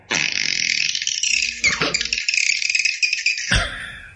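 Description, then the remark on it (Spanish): A person imitates a dolphin with a loud, sustained high-pitched squealing trill that flutters rapidly, briefly wavers midway and ends on a sharper burst. “yo, ah, puedo hacer como, yo puedo hacer como un delfín.”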